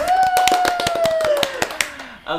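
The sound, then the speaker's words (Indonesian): A small group claps in quick, uneven bursts, while a long whooping voice slides downward in pitch underneath; a brief spoken voice comes in at the very end. “Uh, tepuk tangan dulu dong.”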